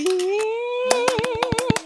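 A drawn-out whooping cheer rises, then a quick burst of about ten sharp hand claps joins it in an uneven patter, a short canned virtual-audience applause sound effect.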